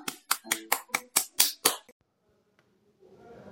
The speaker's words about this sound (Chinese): 下面有请故事大会导师王老师为我们解析这段小故事，掌声有请。